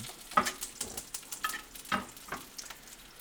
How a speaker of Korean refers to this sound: 아, 이제 빵도 굽고 있고요. 그 다음에 물을 끓여서 거의 지금 완성이 됐기 때문에 먹으러 갈 것만 남은 것 같아요. 소시지 조금만 더 익히면 돼요.